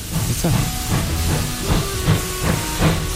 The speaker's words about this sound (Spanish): Históricamente, las locomotoras Berraco... son conocidas por ese nombre por el ronco sonido que producían al frenar y llegaron a España en la segunda mitad del siglo XIX.